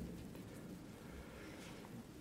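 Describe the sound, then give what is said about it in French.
Steady night rain hisses continuously while a low, rolling thunder rumble fills the background, a constant stormy wash with no voices present. “Vous entendez cette pluie et cet orage qui gronde même pendant votre sommeil et, et à un moment vous ne savez pas si c'est en rêve ou autre.”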